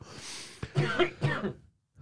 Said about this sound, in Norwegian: Jeg vet ikke hva den hostinga er.